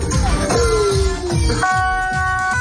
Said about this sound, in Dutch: Ja, niet schrikken radiowet, geloof ik. Hè? Nooit uh, eh, eh, politiegeluid op de radio laten horen. Mensen schrikken zich helemaal